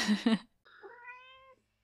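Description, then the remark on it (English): Chili, a female pet cat, gives a short burst of chirpy sound, then a single drawn-out meow with a rising, wavering tone, clear with no one talking. “Oh, that was a chilly meow.”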